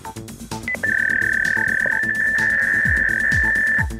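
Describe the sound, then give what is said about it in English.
A fax machine's high, steady electronic tone heard on answering the phone on a telephone line shared with calls, holding for about three seconds with faint warbling and low buzzy pulses underneath, then cutting off abruptly. “A fax machine used a telephone line to send printed information.”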